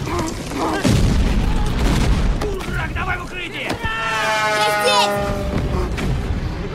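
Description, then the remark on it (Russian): A passing fighter plane strafes a trench with a machine-gun burst: loud, rapid cracks over a dense roar, with a high engine whine sweeping through the middle of the barrage, heavy throughout. “Пролетающий истребитель пресекает окоп пулеметной очередью.”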